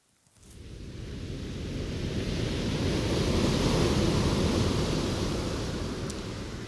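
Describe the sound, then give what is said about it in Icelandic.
Ocean waves wash onto Reynisfjara beach in South Iceland, known for powerful sneaker waves, in a steady, loud roar of surf that swells in after a brief quiet start and holds as broad rushing noise, with no voices. “Ferðamönnum stendur ógn af kraftmiklum útafsöldum sem geta læðst upp að þeim og hrifið á með sér langt á hafút”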